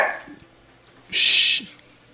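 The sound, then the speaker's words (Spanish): A dog named Raña gives one short, sharp, high-pitched bark, loud and standing alone after a brief fainter yelp, with no talking. “y está volviendo a ladrar.”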